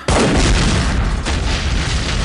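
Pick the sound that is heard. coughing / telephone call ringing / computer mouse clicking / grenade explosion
grenade explosion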